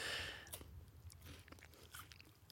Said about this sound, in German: Ja, wir futtern uns das jetzt gerade rein.